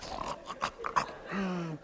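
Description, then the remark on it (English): A person imitates the snort of a dog, Giselle, after snoring in deep sleep: a quick run of rough, breathy nasal bursts, followed by a short, steady low hum. There's no other talking. “Man, she was, I'm telling you, she was sleeping so deep, she was, she was snoring. and, and, and after she, didn't she do this. After she get done snoring, she go.”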